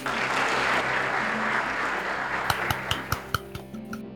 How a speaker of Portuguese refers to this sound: então uma salva de palmas para eles, por favor, por favor.